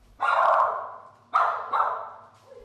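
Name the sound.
dog barking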